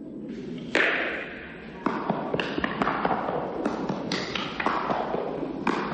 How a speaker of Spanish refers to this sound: Una pelota negra golpea fuerte contra una pared de hormigón.